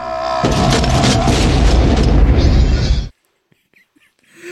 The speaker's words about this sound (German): Er dreht sich um, nimmt die Waffe, diesen geilen Spruch, schießt auf den Typen, der geht halt in einer vollen Explosion hoch.